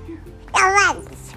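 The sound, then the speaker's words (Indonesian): A baby lets out a single short, high-pitched babble that rises and falls in pitch, clear, with quiet background noise around it. “Jadinya ini si bayi lagi gangguin aku ini.”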